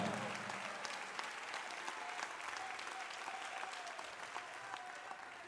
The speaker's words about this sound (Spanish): Si lo creen denle mejor aplauso al Señor en esta hora.